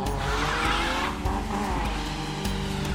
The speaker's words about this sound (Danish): Det er en Golf. En Golf 2. Gul plade, så er der ingen bagsæde i. Så er det en diesel.